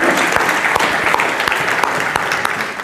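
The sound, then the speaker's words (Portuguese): An audience at a church service applauds God steadily, a dense wash of many hands clapping with scattered sharper claps standing out, sustained and fairly loud throughout with no voices. “Só quem vive o melhor de Deus, aplaude a Ele, porque Ele é digno, aleluia.”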